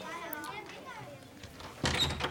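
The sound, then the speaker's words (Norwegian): Children's voices chatter in a classroom, then near the end a door opens as the teacher comes in, with a sudden, fairly loud rush of noise that lasts about half a second. “Læreren kommer inn døra.”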